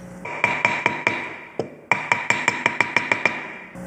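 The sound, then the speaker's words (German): Steady hammering in a large woodworking workshop hall in Taichung, beside a rice field: a quick run of sharp, ringing blows, then a short pause before the rhythmic striking resumes, fairly loud with no talking. “Aus dem weit geöffneten Eingangstor weht der Geruch von frisch geschnittenem Holz und hämmernde Geräusche klingen nach draußen.”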